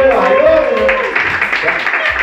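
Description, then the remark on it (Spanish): A crowd breaks into steady applause, dense clapping filling the space, with a whoop or raised voice rising over it near the start. “Un aplauso, por favor, para que han tenido los”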